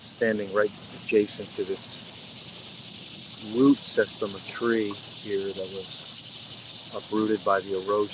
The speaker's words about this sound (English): You can hear the river in the background hear the cicadas.